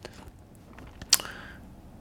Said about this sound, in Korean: 괜히 이렇게 건강해지는 느낌 같은 게 있지 않습니까? 예. 밥을 조금 적게 먹고 예, 사과 반 개 아작아작 씹어 먹으면 아주 그 기분이 좋아집니다.